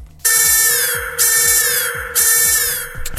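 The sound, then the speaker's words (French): A loud, shrill alarm bell rings on its own, its piercing tone rising in about three repeated bursts roughly once a second, with a rapid pulsing rattle running underneath. “le cerveau il va tirer la sonnette d'alarme. une belle alarme.”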